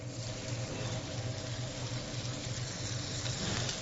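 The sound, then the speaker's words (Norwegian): Saltimbocca, meat with ham and parmesan, sizzles in a hot frying pan with oil, a steady, dense crackling hiss that carries on without pause, with a low hum underneath. “Salt i bukkene er i panna.”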